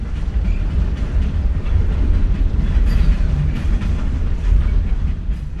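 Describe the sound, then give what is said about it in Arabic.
A train rolls past close by, sounding its whistle, a loud, steady rumble with heavy low-end roar and rattling wheels that holds throughout the few seconds, with no one speaking. “رفع دونجيل ذراعيه وراح يلوح بهما بينما مر القطار وهو يطلق صافرته بجواره”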